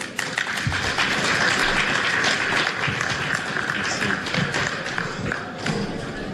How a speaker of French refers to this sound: On applaudit encore une fois les panélistes.